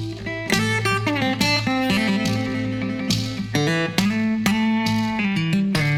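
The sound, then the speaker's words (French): A nine-string guitar picks a lively run of bright plucked notes over a droning low bass string that buzzes and rattles each time it is struck, from a small device wedged under the bass string (rattlesnake percussion), played alone. “Et sous la corde de basse, il a coincé un petit machin qui vibre là, à chaque fois qu'il pince la corde.”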